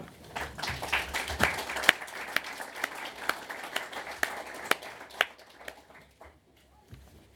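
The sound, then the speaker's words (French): People at a Foundation assembly clap steadily to welcome three volunteers based in Geneva, a dense patter of hands with a few sharper claps standing out, then the applause thins and dies away near the end. “On peut les applaudir.”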